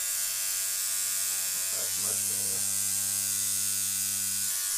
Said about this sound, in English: We'll end it with the sound of the tattoo guy.